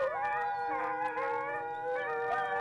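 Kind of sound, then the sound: animal, wolf howling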